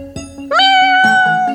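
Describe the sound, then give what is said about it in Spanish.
A cat lets out a drawn-out, rising meow, loud, with a sustained tonal wail that holds steady before tapering off; no voices accompany it. “Échale unos maullidos a escuchar.”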